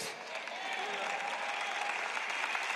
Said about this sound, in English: Come on, if you're going to clap, don't patty cake.